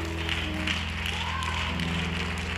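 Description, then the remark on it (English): An audience claps their hands in a dense, steady wash of applause as souls are coming, mixed with sustained musical tones and indistinct voices throughout. “Somebody said, This joy that I have, come on, clap your hands as these souls are coming.”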